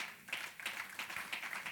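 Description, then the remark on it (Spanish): An audience at an afternoon church service applauding the Lord, a dense crackle of many hands clapping with faint rhythmic accents running through it, fairly soft and steady, with no voices over it. “Le da un aplauso al Señor esta tarde.”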